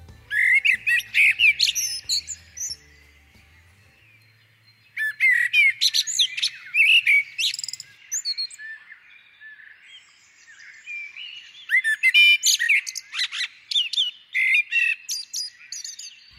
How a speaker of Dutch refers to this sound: op de Veluwe bij het buurtschap 3 dit keer om te luisteren naar zijn verhaal achter het geluid van de merel.